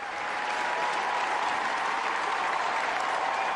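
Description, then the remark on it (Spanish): A large crowd of young people applauds continuously as Pope Francis sits down on the stage, a dense, steady wash of clapping that stays loud and even throughout without any voices standing out. “Cuando se sentó en el estrado, los jóvenes irrumpieron en un gran aplauso.”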